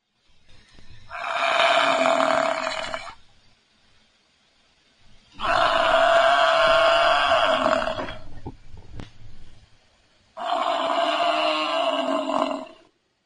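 Three loud, drawn-out Cape buffalo calls, each a rough, harmonic bellow lasting two to three seconds, separated by short silent pauses, with no talking.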